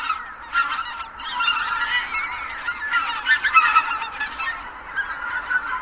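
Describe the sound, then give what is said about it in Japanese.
A dense chorus of greater white-fronted geese calling as they return to their roost at sunset at Kabukuri-numa pond, Miyagi Prefecture, Japan, where tens of thousands gather in the evening. Many overlapping high, yelping honks form a continuous, busy clamor with no pauses and no talking. “宮城県カブクリ沼はマガンのねぐらです夕方になると数万羽ものマガンが集まってきますこの鳴き声は夕方日没とともに泣き合いながらねぐらに戻ってきた時の声です”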